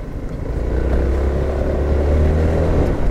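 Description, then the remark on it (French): A Honda ADV 350 scooter engine drones steadily and fairly loudly as the scooter is ridden off on a test ride, a low rumbling hum holding through the whole stretch with a slight rise in pitch as it pulls away. No one speaks. “On part essayer le ADV 350. C'est un petit peu euh, comme le Forza 350 mais avec un look euh, de XADV.”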